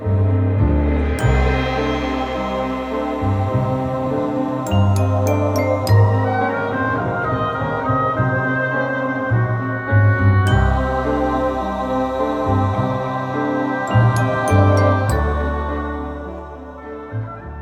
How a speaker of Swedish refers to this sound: Det låter som att det är inspelat nästan under vattnet.